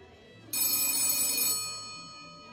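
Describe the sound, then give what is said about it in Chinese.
A police chief's telephone rings once while he is eating, a call from a doctor of physics: a bright, shrill, metallic burst lasting about a second, then fading away over a steady background tone. No one speaks. “正在和 X 神探吃饭的警察局长接到了一位物理学博士的电话。”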